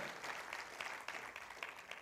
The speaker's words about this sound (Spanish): Un fuerte aplauso